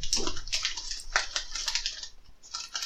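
A steady rush of running water, fairly loud, with splashy bursts rising and falling throughout, like a tub or basin filling; no one speaks.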